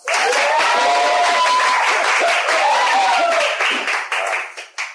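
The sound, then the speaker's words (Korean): A crowd claps in a dense, steady burst of applause with a few voices whooping over it. The clapping holds for about four seconds, then thins into scattered claps and fades out. “앞으로도 제가 나와서, 나와서 인사하면 박수 주십시오.”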